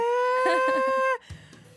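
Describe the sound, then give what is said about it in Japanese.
A single loud, sustained high-pitched vocal note, wavering in the middle, sung in the Amami island folk-song style: chest voice with momentary yodel-like falsetto breaks that sound like a sheep's bleat, then cutting off into quiet background noise. “奄美の島島歌って沖縄と一緒にされがちなんですけど奄美独自の歌い方があって、うんうん、地声に一瞬ファルセットが入るヨーデルみたいななんか羊の鳴き声みたいな感じ”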